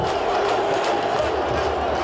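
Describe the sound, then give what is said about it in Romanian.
A large stadium crowd at a match in Petroșani roars and cheers after the goal that won the match 1-0 for Jiul, a dense, sustained wall of voices holding steady and loud throughout with occasional shouts rising above it. “Gol de kilogramă, aplaudat frenetic de întreg stadionul”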